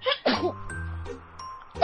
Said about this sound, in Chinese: 正当巴贝和兔爸爸聊天的时候，忽然听到一阵打喷嚏的声音。